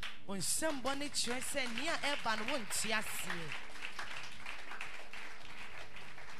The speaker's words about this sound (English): Now your clap shows that you don't even understand what is coming.